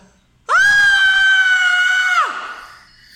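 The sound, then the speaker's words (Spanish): A single loud, high-pitched scream, like the one given when biting into a birthday cake, held steadily for nearly two seconds before its pitch slides downward and it breaks off, leaving faint background noise. “se grita como cuando uno pica, como no tiene el cuchillo y te dicen grita en el pastel”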